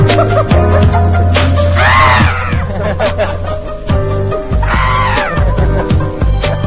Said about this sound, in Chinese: 哎，我怎么你刚才一声声尖叫，好像被强暴，这是怎么回事呢？